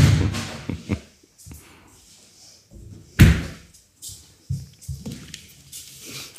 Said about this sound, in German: Die Panayota geht jetzt in den Westflügel und äh, schaut mal, wer da an der Tür ist. Man hört es sogar.